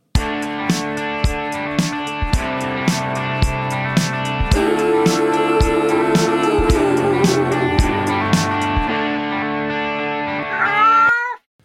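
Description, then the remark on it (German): A short musical jingle by a band, built from meowing cat sounds pitched into a melody over a steady thumping beat, ending with a rising, warbling cat-like wail; no one speaks. “Ja, vielen Dank an die … an dieser Stelle.”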